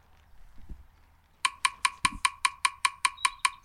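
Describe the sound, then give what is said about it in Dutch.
After a quiet opening, a rapid, evenly spaced beat of sharp knocks starts up loud, 25 hits in five seconds (about 300 per minute), continuing steadily to the end. “Dit is 25 keer in 5 seconden.”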